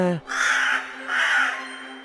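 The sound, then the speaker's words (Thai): A crow gives two loud, harsh caws in close succession, each drawn out and raspy, right after a brief voice fades out. “อีกาได้ฟังแล้วก็รู้สึกไม่เห็นด้วย มันจึงตอบไปว่า”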